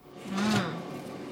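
A cake refrigerator door is pulled open to take out a cake, with a short, low rubbing groan and a soft airy whoosh, followed by a quiet steady background hum. No one speaks.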